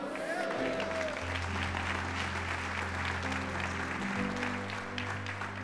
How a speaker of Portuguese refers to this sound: Dê glória a Deus e aplauda o Senhor.